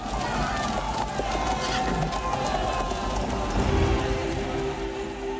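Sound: footsteps running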